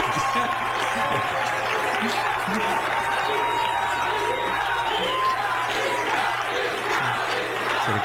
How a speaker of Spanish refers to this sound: Ahí empezaron a aplaudir después Ahí hay menos aplausos.